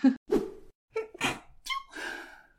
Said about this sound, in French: Pardon, Solène, pour ce atchoum que tu devras couper.